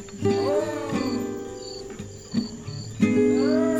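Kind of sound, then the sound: animal, jaguar roaring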